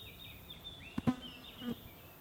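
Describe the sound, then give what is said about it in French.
A fly buzzes over an island under a blue sky, its thin droning whine rising and falling as it passes, with a couple of brief louder swells and no talking. “Dorès entend un bourdonnement.”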